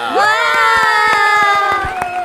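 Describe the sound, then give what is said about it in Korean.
A loud celebratory fanfare effect, played to celebrate a music group's first mini album and debut first anniversary: a rising, sustained chorus of cheering voices with sharp claps or pops scattered through it, holding steady for about two seconds before tailing off. “그리고 빵빠레 한번 더올려야 되는데요.”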